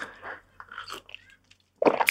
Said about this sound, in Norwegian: Jeg prøver å ikke slurpe rett opp i mikrofonen. Men som dere vet, så skal kaffe slurpes. Det er Spør en hvilken som helst dyktig barista, og vedkommende vil fortelle deg at kaffe skal alltid slurpes.